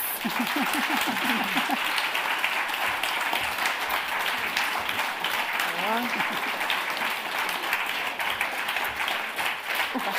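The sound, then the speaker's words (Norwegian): An audience breaks into sustained applause, a dense, steady wash of clapping that fills the whole stretch, with brief voices and cheers rising over it now and then. “Og så vil jeg gjerne takke dere, og så syns jeg vi skal gi dem en skikkelig applaus.”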